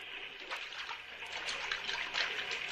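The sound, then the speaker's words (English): Drinking water is poured in a steady trickle with small splashes, a continuous liquid rush that stays fairly even throughout, with no voices. “Yeah, that water looks good. Have some.”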